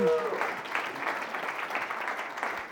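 An audience claps steadily in a dense, even wash of applause for a man called to the front, holding at a fairly constant level for a few seconds, with a brief tonal sound at the very start.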